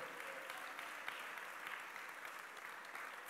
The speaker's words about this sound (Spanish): ¿Cuántos dan un fuerte aplauso a Él?